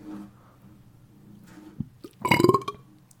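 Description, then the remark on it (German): A single soft burp, made as quietly as possible, rises briefly after a moment of near silence, a low guttural rumble lasting under a second before quiet returns. “Ich, ich habe versucht, so, so leise wie möglich zu rülpsen.”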